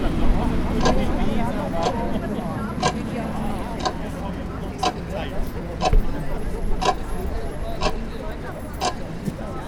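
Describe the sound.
Loud, steady ticking of a large clock set up by demonstrators at a protest against CETA and TTIP, sharp clicks roughly once per second, ringing out over a continuous murmur of crowd voices outdoors.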